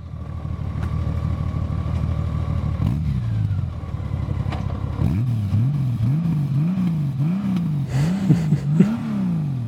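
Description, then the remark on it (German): A six-cylinder boxer motorcycle engine revs repeatedly, its smooth low drone rising and falling in a steady series of throttle blips, loud and alone with no talking. “Und ähm, mit einem Sechszylinder Boxer da hören wir auch noch mal ganz kurz rein.”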